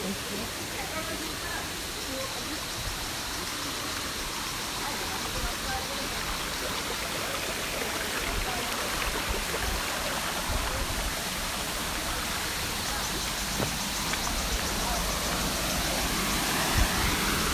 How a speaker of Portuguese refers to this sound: Tem ninguém. Dá pra pegar a cascata tranquilão.